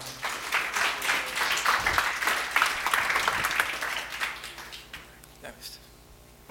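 An audience applauds in a dense, steady wash of many hands clapping, holding strong for several seconds before thinning out and fading toward the end.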